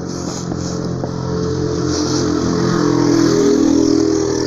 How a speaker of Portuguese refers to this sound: Motos barulhentas.